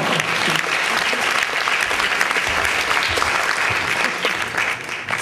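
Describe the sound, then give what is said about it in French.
A crowd applauds Martin Biclair, who is to announce the professional jury prize, steadily and loudly for several seconds, a dense wash of clapping hands that stays even throughout with no one speaking over it. “Vous pouvez l'applaudir pour tout ce qu'il fait, hein, franchement.”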